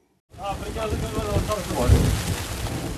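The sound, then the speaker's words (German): Steady rain patters hard on a tent on the slopes of Mount Ararat in Turkey during a thunderstorm, with the temperature just above freezing and deep rumbling thunder swelling in the background. A faint voice is partly audible under the downpour. “Ein Gewitter zieht über die Hänge des Ararat. Regen prasselt gegen das Zelt, dann Hagel.”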